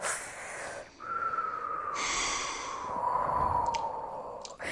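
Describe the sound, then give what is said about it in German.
A person breathes loudly and deliberately into the microphone, with a couple of heavy, noisy breaths that carry a slight whistling, wheezy edge, alone with no talking. “wenn ich dann laut atmen würde, wäre das ungefähr so.”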